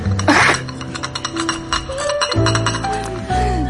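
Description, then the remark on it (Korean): Teacups clink and rattle against saucers in a quick series of bright taps during a tea time, with a soft ringing tone lingering between them. “달그락달그락 요 소리 들리시죠?”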